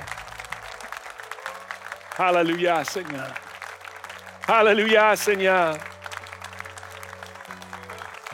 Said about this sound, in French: Est-ce qu'on peut l'applaudir pour qui il est?